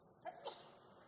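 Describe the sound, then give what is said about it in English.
A single sneeze, a quick sharp intake followed by a hissy burst, fairly soft, with nothing else but faint background noise around it. “Bless you.”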